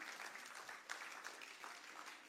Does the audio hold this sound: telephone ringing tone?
no